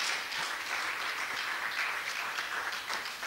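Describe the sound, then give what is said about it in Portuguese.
An audience stands and applauds to praise the Lord, many hands clapping in a steady, dense wash of crisp bright claps that holds at an even loudness throughout, with no voices standing out. “Pode louvar ao Senhor com as suas palmas.”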